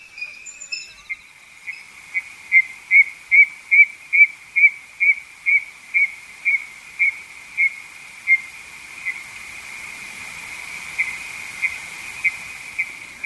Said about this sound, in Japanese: クイナは北海道などの北日本の湿原で夏に繁殖して冬は南に移動すると言われていますが詳しい生態は不明です。関東地方には冬に見られますが数は少ないと思われます夏の北海道で録音したクイナの鳴き声です